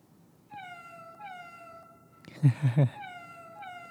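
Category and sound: animal, hungry cat meowing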